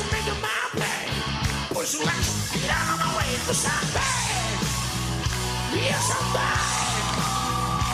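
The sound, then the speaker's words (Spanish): A Chilean man on a television program belts out raspy, strained hard-rock screaming over a loud, steady band backing, imitating a gritty rock singer's shrieking vocals with sustained high wails throughout. “es un amigo chileno en un programa de televisión. Rompiéndose la garganta y le sale perfecto.”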